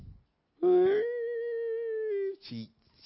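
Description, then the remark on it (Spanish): A voice imitates a young woman's loud, drawn-out wailing cry while watching films: one sustained, slightly rising howl lasting well over a second, followed by a short choppy sob-like burst. “Así, llanto”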